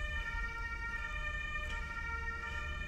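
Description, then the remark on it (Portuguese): A steady emergency siren wails over a constant low rumble of heavy city traffic with many cars in Lisbon around 17:50, holding a sustained tone throughout with no voices present. “O trânsito a esta hora também é um bocado complicado, caraças.”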